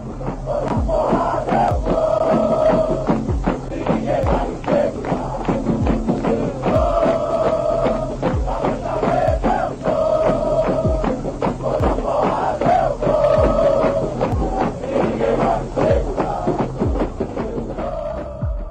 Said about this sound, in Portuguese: Logo depois do jogo, a torcida vai continuar seus protestos porque essa é uma torcida que canta, mas também cobra.